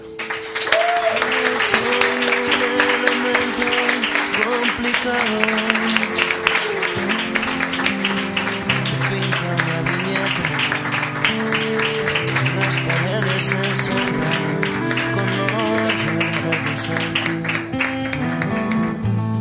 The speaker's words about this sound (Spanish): Hoy le voy a tener aquí a mi lado y todos le vamos a escuchar un fortísimo aplauso para ….